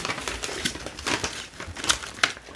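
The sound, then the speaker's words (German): A package being unwrapped: crinkly, rustling paper and plastic with irregular crackling bursts and a few sharper crunches, fairly quiet, no talking. “Oh, wird hier ausgepackt.”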